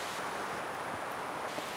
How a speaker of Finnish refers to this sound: Tuuli seuraa meitä. Kyllä se näköjään seuraa. Että minne tahansa me nyt liikutaan täällä Lauhavuorella, niin, niin se seuraa.